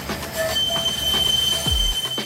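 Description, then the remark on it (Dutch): High, sustained metallic squeals ring out as tram wheels grind along the rails in Ghent, layered over a steady rumbling roll, with a low swooping groan near the end. No one speaks. “en in Gent klinken verschillende trammen toch net iets anders.”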